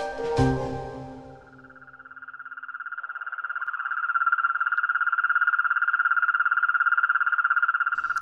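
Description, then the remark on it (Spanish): A cane toad gives one long, unbroken trilling croak, a rapid buzzing pulse train that swells slightly and holds steady for several seconds after a brief louder burst at the start. “El sapo gigante llega a medir entre 10 y 15 centímetros y vive entre 10 y 15 años.”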